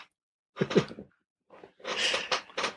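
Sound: dog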